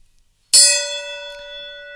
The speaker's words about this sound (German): Okay, dann gong, gong, gong, gong, gong, gong, gong.